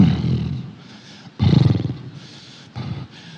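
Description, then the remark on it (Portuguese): A horse, led by the reins to the water's edge, snorts three times in rough, breathy bursts with a low rumbling growl to each; the first two are long and loud, the last shorter, with hissy breath between them. “E o cavalo está bufando.”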